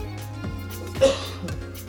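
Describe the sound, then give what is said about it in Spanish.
A single short cough bursts out about halfway through, fairly loud, over a quiet steady low hum with no talking. “Yo digo tosiendo a ustedes.”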